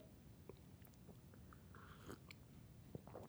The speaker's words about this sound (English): sip of coffee. I'm freezing. I gotta I gotta warm up them insides.